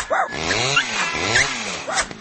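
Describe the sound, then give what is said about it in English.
A couple of small dogs yip and whine in quick, high-pitched bursts, added into a dense, noisy sound mix that includes cats and stays loud throughout. “And now he's throwing a couple yipping dogs, right?”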